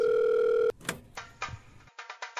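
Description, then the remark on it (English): A steady, loud telephone tone hums for under a second, then cuts off into a series of clicks, rustles and short bursts of line noise as an incoming phone call is picked up. “hold on I think we got we got a we got a call here uh, coming in hold, hold on I'll have to set this up one second”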